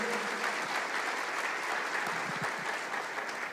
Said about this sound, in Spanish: Si tienes alguito de fe, aplaude o reacciona a la palabra de Dios.